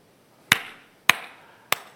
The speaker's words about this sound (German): Und jedes Mal, wenn wir Anbetung hatten, fing er an zu klatschen als Erster